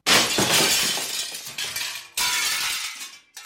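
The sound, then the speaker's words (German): A pane of sugar glass is smashed: a loud, bright crash bursts into scattering, tinkling shards, then a second crash follows and a brief final smash cuts in at the end. No one speaks. “Mit Zuckerglas kann man aber noch viel mehr machen als bloß draufhauen essbare Fensterscheiben für Knusperhäusel beispielsweise oder essbare Glasskulpturen.”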